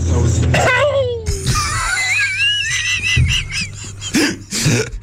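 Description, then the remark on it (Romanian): A person imitates a cat's hacking cough with a few rough, strained bursts and wheezy, squeaky vocal noises, loud, mixed with brief talk and laughter. “E ca pisica, eu cred că o și arunci cu catapulta în momentul ăla și trece, îți dai seama, trece, uh, trece o pisică tușin pe lângă tine.”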